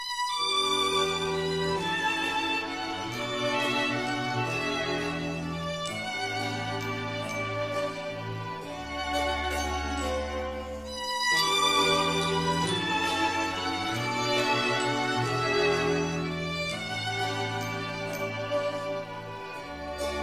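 A gentle, lyrical orchestral theme from the soundtrack of Igor Maslennikov's Sherlock Holmes and Doctor Watson films plays on its own, with sustained melodic lines over steady low harmonies, evenly loud throughout and with no voices.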